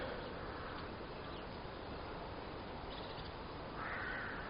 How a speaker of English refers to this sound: the variety of birds that are making their bird song this morning.